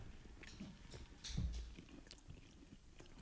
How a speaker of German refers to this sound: Man hört uns schmatzen.